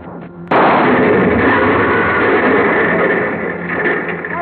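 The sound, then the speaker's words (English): A Buick car explodes in a sudden, loud blast of cordite powder and gasoline after a gunshot at its trunk, followed by a dense, roaring rumble that stays heavy for several seconds and eases only slightly toward the end. No voices are heard. “The car went up in a blast of powder and gasoline, and she moved back towards the other.”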